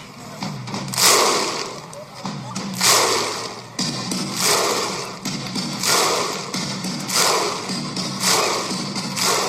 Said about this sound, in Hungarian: EB hangulatban, ezek szerint ezzel az Izlandtól elcsort szurkolói rigmussal